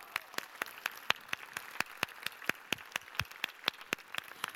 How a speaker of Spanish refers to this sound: Aplausos, Paco.